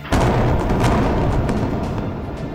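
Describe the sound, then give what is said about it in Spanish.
A dense, continuous roar of blasts and rumbling from incoming projectiles and air defenses over Israel at night in 2023, around 11 pm amid alarms, with a few sharper cracks cutting through. Loud and steady throughout, and no one speaks. “Proyectiles.”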